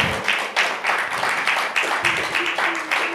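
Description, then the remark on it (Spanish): A church audience breaks into loud, sustained applause for the Lord, many hands clapping in a dense, steady wash with a loose rhythmic pulse running through it for the whole few seconds. “Démosle un fuerte aplauso al Señor, por favor.”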